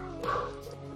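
A dog gives a single short bark, slightly muffled, over a steady low background hum. No one speaks.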